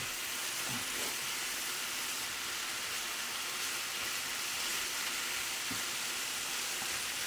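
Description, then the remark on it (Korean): Steady sizzling of kimchi fried rice stir-frying in a hot pan, a continuous crackling hiss with occasional soft scrapes of a utensil, with no one talking. “음, 오래 좀 볶아보죠.”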